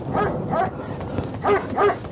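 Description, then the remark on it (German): A stray dog barks several times in short bursts on a cold night, a pair of barks early and another pair near the end, moderately loud against a quiet background with no talking. “Und überall sind die streunenden Hunde.”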